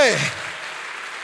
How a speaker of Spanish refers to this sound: Dele fuerte ese aplauso al Señor y colóquese en pie.